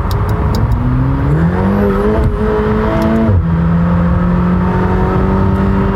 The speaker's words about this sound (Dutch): ik trap hem niet helemaal open. Heeft alles te maken dat ik hier natuurlijk ja, gewoon niet boven de 100 kan rijden. Maar als je accelereert zit je er wel zo op.